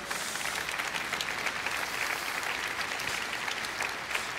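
A crowd applauds Christ steadily for several seconds, a dense, even wash of many hands clapping at a moderate level with no talking over it.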